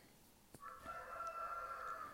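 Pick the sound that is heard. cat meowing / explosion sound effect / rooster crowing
rooster crowing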